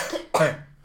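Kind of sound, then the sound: human body sound, sneeze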